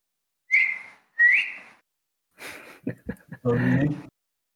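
A person whistles two short rising notes as a sound test, each sliding upward, followed by a breathy pause and some brief muffled vocal sounds.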